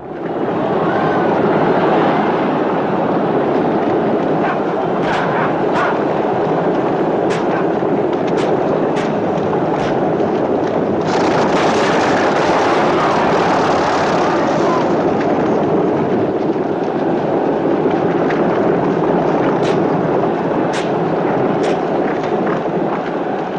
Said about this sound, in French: Pour vous donner une idée de l'ambiance, voici un extrait de la course de char. Pas de dialogue, on y entend les chevaux, les roues qui s'accrochent, les coups de fouet des conducteurs de char et bien sûr la foule.